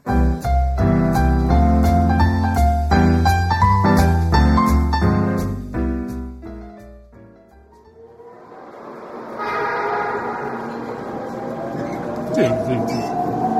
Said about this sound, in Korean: 아, 그렇게 의심되더니 기껏 지하철이야? 한간 지하철이 얼마나 데이트하게 좋은데요.